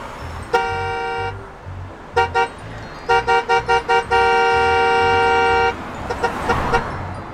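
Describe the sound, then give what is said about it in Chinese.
A big truck suddenly arriving, its horn blaring over a low engine rumble: one long honk, a pair of quick toots, a rapid burst of short honks, then a sustained loud blast. “这时，忽然来了一辆大卡车，屁股还冒出好多黑烟。”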